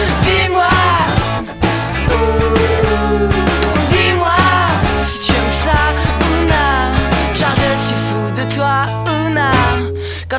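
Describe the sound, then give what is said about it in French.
A loud French rock song about love plays on the radio continuously, with a driving full band, heavy bass and a lead vocal singing over the top, sustained throughout. “Et waouh, c'est du rock, ça parle d'amour”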